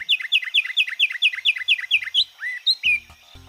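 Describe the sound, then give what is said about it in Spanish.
A finch sings a rapid series of bright, repeated chirping notes, about a dozen in a steady rhythm, then a few looser warbled phrases, clear and close with no talking. “El trino del pinzón con el rostro forma parte del Banco de Sonidos de Aves Colombianas recopilado por el Instituto von Humboldt y la Universidad de Cornell.”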